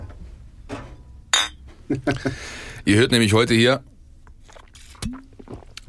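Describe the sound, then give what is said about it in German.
Glasses of Radler clink together sharply a few times, followed by a brief slurping sip, with people talking around it. “Bevor wir jetzt zum nächsten Themenschwerpunkt gehen, würde ich einfach mal sagen, wir nehmen jetzt mal ein Schlückchen.”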